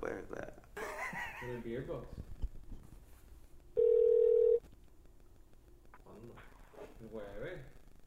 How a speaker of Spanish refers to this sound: So, vamos a llamar por teléfono a,